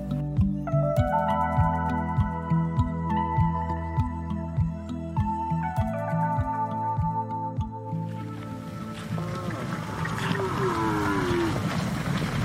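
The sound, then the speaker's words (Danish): Danish organic cows moo as they are let out of their barns onto light green fields: long, deep, drawn-out calls, several overlapping one after another, loud, with a rougher, noisier bellow toward the end. “kunne man se de danske økokvæg blive lukket ud af stallene og boldre sig på de lysegrønne marker.”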